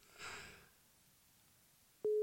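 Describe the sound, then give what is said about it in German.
A soft breathy exhale, then quiet, before a loud, steady mid-pitched telephone ringing tone of a call that goes unanswered cuts in abruptly right at the end. No one speaks. “Nee, wenn er jetzt noch dreimal klingelt nicht dran geht”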